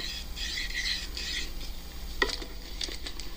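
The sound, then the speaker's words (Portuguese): At Web Rádio Nós na Fita, a rosin block is rubbed along a violin bow in several quick back-and-forth strokes before playing baião, a soft scratchy rasp, followed by a few light taps and clicks. No one speaks. “Passar um breuzinho aqui, por som fica bom.”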